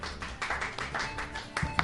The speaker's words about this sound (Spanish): Qué triste ha quedado el aplauso, por favor. Efectivamente, efectivamente. Ha quedado un poco regumal.